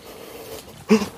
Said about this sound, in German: Oh, großer Hund. Ein großer, herrenloser Hund folgt mir